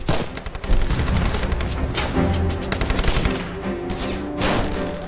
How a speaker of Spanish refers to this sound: Con una ráfaga de artillería el explorador se agacha para protegerse.